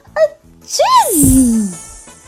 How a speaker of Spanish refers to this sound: … le sorprendió tanto el estornudo